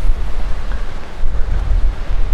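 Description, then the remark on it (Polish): Strong wind buffets the microphone in a steady, loud rumble, heavy low-end roar with gusty surges throughout, with a surf-like wash behind it; no one speaks. “Tutaj jest chyba więcej, ba bardziej, bardziej wieje.”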